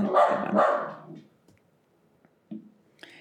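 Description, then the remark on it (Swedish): A dog barks twice in quick succession, loud, then a few softer, shorter yaps follow after a pause, with quiet stretches between them and no talking. “ja, så kom hunden också såklart.”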